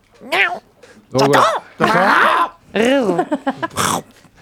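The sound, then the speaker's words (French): Someone imitates a cat with a run of fairly loud meows, several drawn-out sliding cries with short pauses between, the last few quicker and choppier. “Parmi nous. Miaou.”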